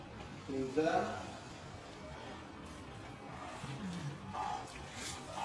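A tiger lets out a short, rumbling roar near the start, a rough low growl that swells and fades within a second, followed by quieter low grumbling and background noise.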